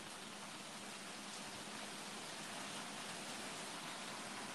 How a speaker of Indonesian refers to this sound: Hujan hujan nih mantep loh. Wah, waduh. Cuaca mendukung kali ya.